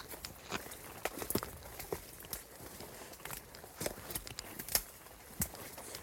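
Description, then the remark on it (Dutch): Footsteps crunch over a forest floor, twigs snapping and cracking underfoot in a loose, uneven walking rhythm. Fairly quiet, with no voices. “Zo het knappende geluid van takken, dat vind ik ook iets heel mooi.”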